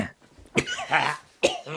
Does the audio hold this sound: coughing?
yes